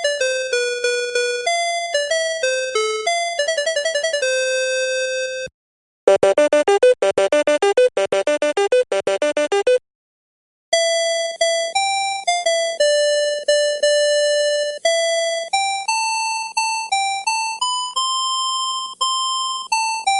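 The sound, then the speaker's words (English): A listener's favorite alarm clock alarm sounds play one after another: bright electronic chime melodies, then a fast, buzzy warbling trill, then more ringing note sequences, loud with no talking. “I've attached a few favorite alarm sounds.”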